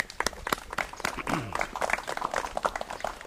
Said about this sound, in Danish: Skal vi ikke lige klappe alle de frivillige? Det synes jeg.